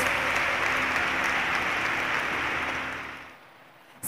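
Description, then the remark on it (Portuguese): A crowd applauds for Jesus steadily for about three seconds, a dense wash of clapping that tapers off and fades to near silence at the end. “Uma salva de palmas para Jesus.”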